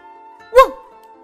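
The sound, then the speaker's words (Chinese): A hunter's dog gives one short, sharp bark that rises and drops quickly, standing out over a faint, steady tonal hum that continues before and after it. “小狗在树丛中向传来汪汪叫声的方向匍匐前进。”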